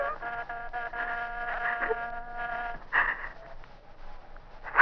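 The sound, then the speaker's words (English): An electric doorbell at a penthouse door buzzes in one long, steady ring lasting a few seconds, then cuts off, followed by faint scuffling noises. “the doorbell stopped.”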